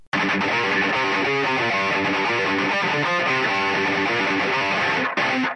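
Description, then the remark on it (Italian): A loud, distorted electric guitar, the first guitar of a band at a soundcheck, plays a continuous run of notes and chords for about five seconds, cutting off abruptly near the end, with no voices over it. “Chitarra 1?”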